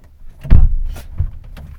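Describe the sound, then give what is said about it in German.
A door being opened: a heavy low thump and brief rattle of the latch, followed by a second, softer knock a moment later, with no voices. “Und dafür machst du die Tür auf?”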